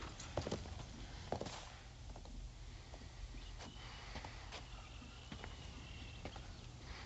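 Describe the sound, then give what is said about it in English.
Horse hooves clip-clop at an uneven walking pace as riders ride off on the horse, over a constant low rumble and faint outdoor background noise, with no voices. “they ride off on the horse.”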